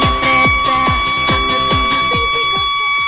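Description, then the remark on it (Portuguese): A cheap, fake electronic school siren rings out loudly: rapid falling chirps repeat about three times a second over a steady high-pitched whine, continuous for the whole stretch with no talking. “essa sirene é de mentira.”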